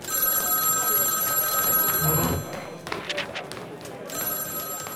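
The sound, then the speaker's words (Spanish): A telephone rings in two loud, steady bursts of bright electronic tone, separated by a short gap filled with indistinct background voices and noise. “Y ese maldito teléfono sonaba y sonaba.”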